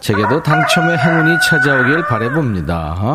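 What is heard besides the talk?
rooster crowing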